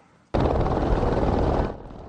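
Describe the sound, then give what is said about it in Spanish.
A helicopter, used by Arizona authorities to reach remote desert areas and carry water for wild animals, roars in suddenly and loud, its dense rotor noise holding steady for over a second before dropping away to a quieter hum. “Por eso, con helicópteros para llegar a zonas remotas y también con camiones cisterna, en las últimas cinco semanas las autoridades de Arizona han transportado más de mil litros de agua a 3.000 depósitos”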